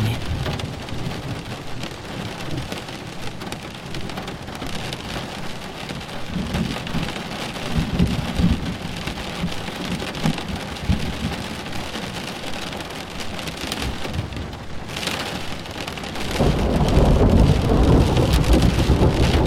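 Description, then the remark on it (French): Heavy rain pours steadily with a dense, hissing patter, while low thunder rumbles beneath it and swells into a louder roll near the end. No voices are present. “Votre attention, concentrée sur le bruit de l'orage, vous a fait oublier le stress et les tensions accumulées.”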